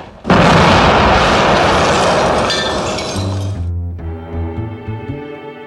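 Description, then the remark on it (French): A sudden loud explosion bursts in, followed by a long roaring rumble with crackling, shattering debris, then a low tonal hum and clatter as the blast fades over several seconds. “Si t'as des volontés à exprimer, une prière que t'aimes bien, ou un mot historique à balancer, mine-toi, ça va péter dans 15 secondes.”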